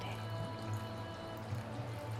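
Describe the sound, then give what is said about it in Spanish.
A soft, steady trickle of water runs continuously, like a small fountain heard from a distance, faint and unbroken, with a low hum underneath and no voices. “mientras continúas respirando lentamente y quizás también a lo lejos escuches la fuente de agua que une los elementos de agua y fuego de vida, aire”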